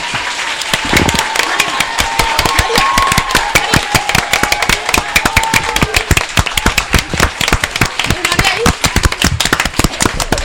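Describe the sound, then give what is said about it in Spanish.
Fifth-grade schoolchildren applaud themselves together for doing well, a dense, steady burst of clapping that lasts about ten seconds, loud and continuous, with a few voices faintly mixed in beneath the claps. “Os podéis dar un aplauso a vosotros mismos, que lo habéis hecho muy bien.”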